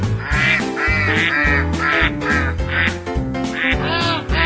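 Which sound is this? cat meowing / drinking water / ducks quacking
ducks quacking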